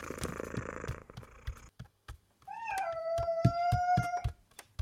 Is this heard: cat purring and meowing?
yes